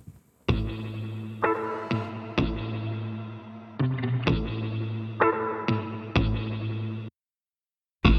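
An instrumental song intro plays alone, with loud, effects-laden chords struck roughly every second and a half over a steady low drone, then a brief silence before the music resumes.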